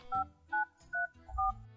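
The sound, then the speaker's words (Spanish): Four cell phone keypad tones beep in quick succession at a steady pace, each a short, clear electronic note pressed one after another, with no voices, as the Stellarium app is being installed on the phone in Pasto, Colombia. “Es que no entiendo qué es lo que tanto haces en ese celular.”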